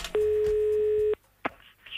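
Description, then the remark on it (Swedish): A single telephone ringback tone from an outgoing call placed from Boråsbadet, a steady electronic buzz lasting about a second, then a brief click and quiet line noise. “Och vi ringer henne lite efteråt.”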